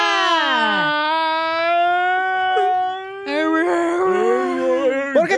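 A long, exaggerated wailing cry, a sustained high harmonic howl that holds steady, breaks briefly, then resumes louder before trailing off, sounding like a person theatrically bawling.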